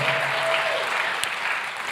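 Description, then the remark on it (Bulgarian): An audience claps steadily as a powerful offering of applause to God: a dense, even wash of many hands that holds at a constant loudness throughout, with a brief sharp accent partway through. “О, ако вярваш в това, защо не му дадеш едно мощно дарение на ръкопляскане, като че наистина ти ще разказваш за делата на Бога?”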